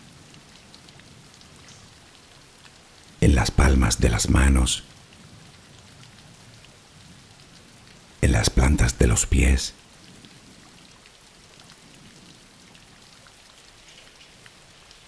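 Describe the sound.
Steady, even background rainfall hisses softly and continuously throughout, while a calm voice speaks a guided relaxation for sleep over it in two short passages.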